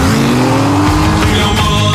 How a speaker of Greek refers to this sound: Θα κάνουμε έναν ελιγμό να τους ξεφύγουμε. Και η φόρμουλα που μας κυνηγάει. Κάτσε και θα δεις.